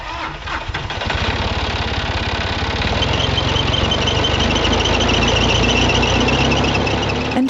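vehicle, tractor engine running

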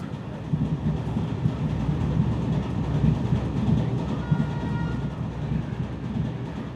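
vehicle, train riding on rails

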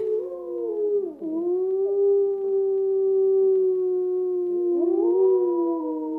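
animal, wolf howling

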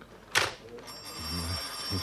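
household object, telephone bell ringing

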